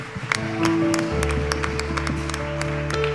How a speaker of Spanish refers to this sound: ¿Cuánto le dan un aplauso a Dios por la familia espiritual?